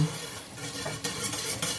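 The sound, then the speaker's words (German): A pot boils hard and boils over on a stove set to level three, a steady rush of churning bubbles and hiss with brief louder surges, no voices over it. “Oh, das kocht ja jetzt so doll.”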